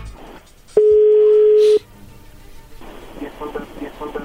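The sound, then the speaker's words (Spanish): A phone being dialed: one steady, mid-pitched electronic tone holds for about a second, then cuts off, followed by soft background murmur and low voices. “no haga ruido, ahí se está marcando.”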